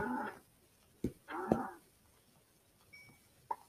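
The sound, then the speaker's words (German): A cow in a video game moos twice in short, nasal bursts, with sharp thumping hits between them and another faint thud near the end, all fairly quiet. “Hier ist noch eine Kuh.”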